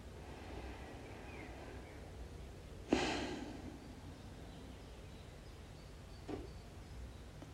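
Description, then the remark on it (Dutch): Slow, deliberate breathing: one soft, airy exhale about a second long, then a long pause and a fainter, shorter breath near the end. “Ik vind dat wel fijn als ik vanuit een hoge energie wil zakken in mijn lijf, dan ga ik mijn ademhaling altijd even volgen.”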